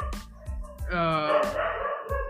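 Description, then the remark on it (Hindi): A dog barks in a quick series of sharp, loud yaps, with a longer drawn-out bark in the middle and a final short bark at the end. “sorry तो कुत्ते भी सुनते हमारा पॉडकास्ट”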